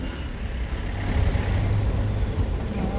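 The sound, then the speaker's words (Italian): Steady city traffic roars, a dense low rumble of engines from trucks and buses with a brief hiss like an air brake, continuous and fairly loud with no voices. “Finora l'esperienza di lavoro agile che la maggior parte di noi conosce è quella di svicolare nel traffico e arrivare sani e salvi da casa all'ufficio o viceversa dall'ufficio a casa.”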